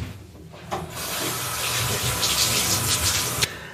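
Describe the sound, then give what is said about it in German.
Warm water runs steadily through a hose over a vacuum cleaner brush in a bathroom to rinse it, a continuous hiss and splatter that brightens midway, with no one speaking. “Also, werde jetzt Wasser, einfach warmes Wasser durch äh, den Schlauch.”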